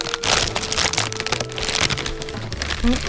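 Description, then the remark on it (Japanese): A bag of olive potato chips made by Tanimoto Shokai, a maker in Kagawa Prefecture, being opened: steady, loud crinkling and crackling of plastic packaging for about three seconds, with sharp snaps and rustles in irregular bursts. “では開けてみますかね。”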